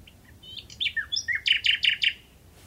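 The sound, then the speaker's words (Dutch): A common nightingale sings a short phrase at night: a few soft introductory notes and quick varied whistles, then a loud rhythmic series of five repeated rich notes, clear against quiet low background. “Dus een hele gewone nachtegaal.”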